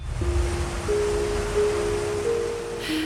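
ocean waves at sea

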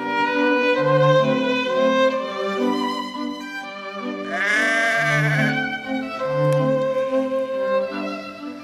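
sheep bleating

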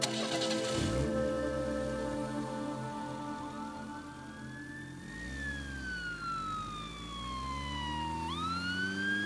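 ambulance siren

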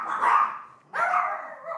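small dogs barking

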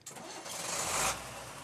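car engine starting

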